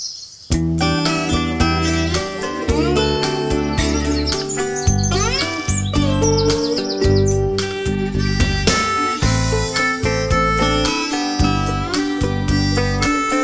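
The instrumental version of a song, the outro of the album, plays steadily and loud throughout, with layered sustained tones, a strong bass line and high bright, chirpy lead notes sliding in and out, with no voices.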